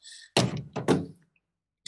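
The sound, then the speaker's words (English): A cluster of three or four dull, heavy thumps and knocks as a huge mirror is grabbed and shifted, fairly loud, with quiet before and after and no talking. “excuse the noise in the back. I have to grab this huge mirror because again, I got to draw my face for my class.”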